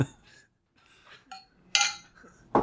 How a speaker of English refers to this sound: Forever we should, we should, we should clink glasses. Yep.